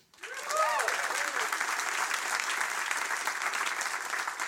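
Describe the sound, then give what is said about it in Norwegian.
An audience bursts into sustained applause for particle physicist and AI expert Inga Strømke as she is introduced, with a few cheers and whoops rising early on, the clapping dense and steady throughout. “En stor applaus til partikkelfysiker og AI-ekspert Inga Strømke.”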